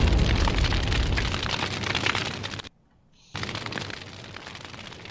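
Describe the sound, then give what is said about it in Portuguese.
A loud MOAB bomb explosion sound effect: a sustained, roaring blast of rumbling noise that cuts off abruptly for a moment, then bursts back in with continued heavy rumble. “Solta Moab e Fogo do motor, o mundo tá se acabando em Itatira”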